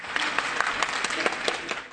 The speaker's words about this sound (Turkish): Saat 21'de ise yine balkonlardaydı insanlar. Sendikaların çağrısıyla bu kez alkışlar işçiler içindi.